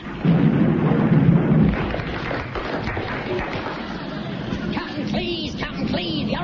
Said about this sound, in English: Suddenly there is a tumultuous thunderclap.